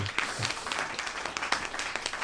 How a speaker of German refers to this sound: Das ist ein Applaus. Dankeschön, danke, danke, danke, danke, danke.